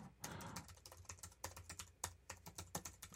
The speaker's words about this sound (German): muss ich mir beim Passwort tippen noch deutlich mehr konzentrieren